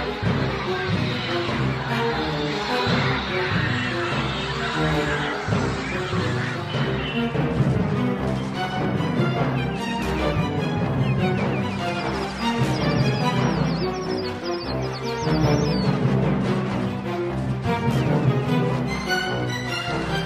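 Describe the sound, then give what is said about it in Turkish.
A tense horror film theme plays without a break, dense layered music holding a steady, fairly loud level for about twenty seconds, with no voices. “Kuşlar filminin ana temasından kısa bir bölüm dinleyelim”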